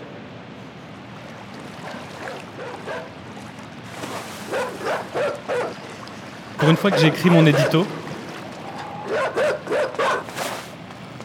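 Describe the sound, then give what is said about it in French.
Dogs bark in several quick, repeated bursts, with one loud cluster in the middle, while a man speaks over a steady background hiss; the barking accompanies a reading of Baudelaire's poem Le Jeu. “et accompagné du, son des chiens, je lirai un poème de Baudelaire intitulé Le jeu”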